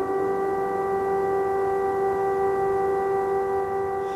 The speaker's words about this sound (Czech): protože jenom to, že tady v Kijevě několikrát denně zní sirény,